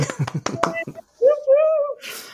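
Four quick, sharp hand claps in a steady rhythm, followed by a drawn-out, slightly rising vocal cheer and a short burst of breathy noise at the end.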